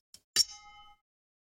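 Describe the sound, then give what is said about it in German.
Two 0.33-litre glass bottles of Leffe beer clink together once during a toast, a soft tap followed by a sharp bright clink whose tone rings on briefly before fading to silence. “So, Prost.”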